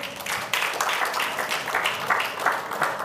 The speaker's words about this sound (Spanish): Gracias, amén, amén y amén. Den un aplauso al Señor.